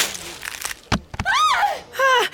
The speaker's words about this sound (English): you knocked its arm right off. That thing is real.